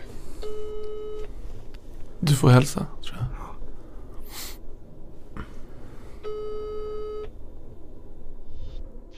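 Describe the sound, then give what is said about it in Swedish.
An outgoing phone call rings: two long, steady ringing tones about five seconds apart, with a person speaking briefly in the gap and a faint background hum throughout. “Vi ringer till honom och ser vad han säger.”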